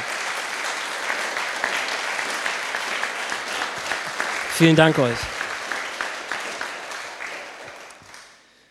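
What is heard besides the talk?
audience applause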